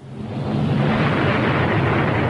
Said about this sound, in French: Chuck Yeager allume ses quatre fusées. Une poussée de près de 3 tonnes amène X-1 à 8000 mètres en une minute.